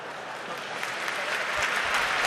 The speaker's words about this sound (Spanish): Recibe también un aplauso el cardenal Juan José Omilla.